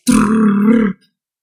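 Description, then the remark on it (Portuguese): A voice imitates a drum roll, standing in for drum sounds just before a poll's winner is announced: one steady, buzzing, low-pitched rolled sound lasting just under a second at an even loudness, then it stops abruptly and silence follows. “De acordo com o Databico, o vencedor é eu faria barulhos de tamborzinhos se eu soubesse. Então imaginem que esse barulho que eu vou fazer é isso.”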